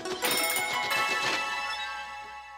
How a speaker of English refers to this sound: Ding, ding, ding. That is right.